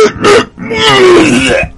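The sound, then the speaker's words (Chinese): A voice imitates a little girl hawking up a big mouthful of black phlegm: a short harsh rasp, a brief pause, then a longer guttural, throaty hawk that drags on loudly for about a second. “吐了这么一大口黑痰，紧接着一声就哭了。”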